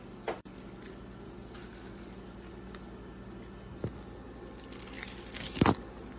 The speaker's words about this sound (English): Like, did you hear that? This chicken is like candy chicken because of the sauce stuff and it was crispy and it's still crispy and it's cold. Cold chicken is crunching. That is the magic of Korean fried chicken. It crunches when it's cold.